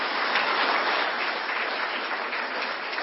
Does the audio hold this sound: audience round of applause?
yes